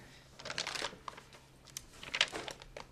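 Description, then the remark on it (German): Dry papery rustling and crinkling as heavy pages of one of the oldest birth registers of the town of Schweinfurt are turned, a few soft flips and shuffles at low volume, with no voices. “blättert in einem der ältesten Geburtsregister der Stadt Schweinfurt.”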